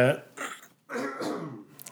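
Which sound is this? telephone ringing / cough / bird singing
cough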